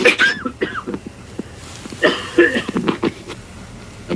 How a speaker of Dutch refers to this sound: Even hoesten weer